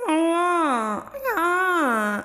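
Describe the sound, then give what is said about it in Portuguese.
A voice imitates a whimpering, crying moan mixed with shouting, in two long, wavering wails, each sliding downward in pitch, loud, with a brief break between them. “era sempre tipo um gemido com uma gritaria e um choro junto que me dava uma agonia.”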